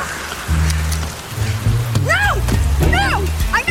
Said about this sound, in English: Well, the rain's still pretty bad. Probably got caught in a hailstorm.